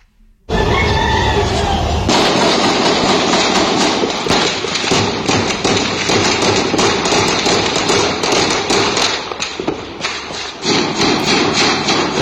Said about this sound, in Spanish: estuvieron disparando armas Barrett. La Barrett es una de las armas más potentes en el mercado.